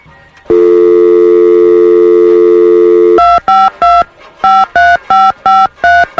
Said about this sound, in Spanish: Vamos a marcar. Vamos a marcar.